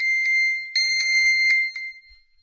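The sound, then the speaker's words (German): A loud, piercing electronic alert tone rings steadily from a phone triggered by a voice command to find it, the phone also buzzing and vibrating while held in the hand, with a high pitch and rhythmic pulses, continuous before cutting off near the end. “ist ein ordentlich lauter Ton.”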